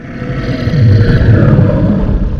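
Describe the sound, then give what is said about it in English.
A loud, deep, lion-like growl from an unseen creature less than a foot in front of a person standing in a doorway, rumbling continuously for a couple of seconds, swelling after a brief start with no voices over it. “And it freaking growled at me out loud.”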